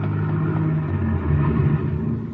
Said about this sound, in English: Hold it. Listen. Car pulling away out in front.